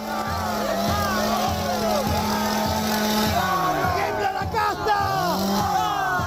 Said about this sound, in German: Der Dollarregen gehört zur Show, genauso wie die Motorsäge, die Millet nun zückt und rühren lässt.